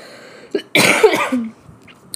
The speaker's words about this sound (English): oh, excuse me. Sorry, the cough is still the thing lingering, and when I'm talking a lot, it just happens.